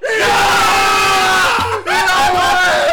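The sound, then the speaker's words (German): A huge stadium crowd roars in celebration of a goal for Schalke in the 42nd minute, making it 1-0, a loud sustained wall of cheering and shouting that dips briefly before surging again, with a voice calling out over it. “Ähm, Tor für Schalke. Und das hört sich so an.”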